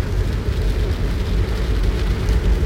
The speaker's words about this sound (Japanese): 雨降ってます結構激しめに今